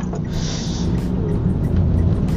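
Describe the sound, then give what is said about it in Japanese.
Steady low rumble of a car moving through heavy traffic on a rainy morning, the last day of the fiscal year, with many cars on the road, continuous road and engine noise filling the background and faint swishes of passing vehicles, no voices. “いや、今日はね、だからその雨の、え年度末最終日ということもあってか、車が結構多くてですね、実はまだ到着してません。”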